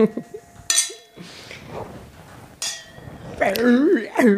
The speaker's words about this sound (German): Wollen wir doch mal anstoßen mit unserem äh, My Wine Wine? Mit dem Marilla. Oh, mit, mit dem Marilla. Prost.